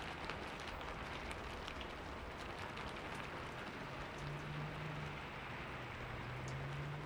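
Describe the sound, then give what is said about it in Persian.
Steady rain falls without pause, a dense, even hiss of countless drops pattering on a surface, with a faint low hum drifting underneath toward the end. No one speaks. “سکوت سنگینی شد صدای بارون می اومد و صدای خیابون قطع شده”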